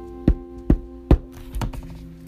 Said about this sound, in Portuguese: Depois fechou a porta e foi se deitar na cama da avó à espera de Chapeuzinho Vermelho, que pouco tempo depois bateu a porta.